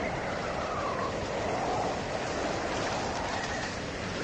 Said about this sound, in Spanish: Pero, de repente, un viento huracanado, frío como las losas de las sepulturas.